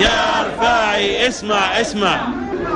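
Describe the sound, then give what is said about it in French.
A large protest crowd in Jordan chants a slogan in unison against the Prime Minister, calling for the government to resign, many loud voices rising and falling in short rhythmic phrases with no pauses. “Rifai, Rifai, du nom du Premier ministre, écoute, écoute, le peuple ne cédera pas.”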